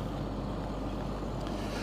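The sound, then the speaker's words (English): A chainsaw cutting up a tree, mostly a tree limb, drones steadily, a continuous low, rough rumble with no breaks or changes in pitch, and no voices over it. “Okay, we got somebody using a chainsaw here. They are cutting up this tree.”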